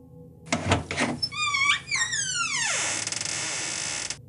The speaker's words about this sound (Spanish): El sonido de las bisagras me dio a entender que mi puerta se abría hasta su máximo.